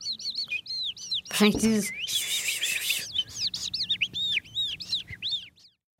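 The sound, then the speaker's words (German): An animal-voice imitator whistles a skylark imitation with the mouth: a rapid, continuous stream of high, warbling chirps and trills, fairly loud, with a brief spoken word near the start. “Zum Beispiel diese Feldlerche hier stammt aus dem Mund von einem Tierstimmenimitator.”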